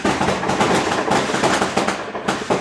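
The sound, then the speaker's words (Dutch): Fireworks crackle and pop outdoors in a dense, continuous barrage of rapid bangs, fairly loud, with no voices over them. “Wat hoor ik, jongens? Dat is vuurwerk.”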